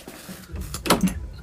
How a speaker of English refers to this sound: That's me opening my front door.